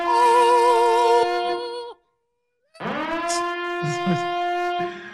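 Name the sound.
siren sound effect jingle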